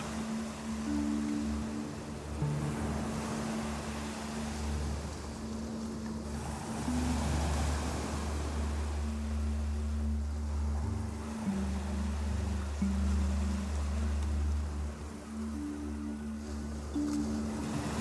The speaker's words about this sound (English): and as the gentle waves of slowly rocking water reaches your neck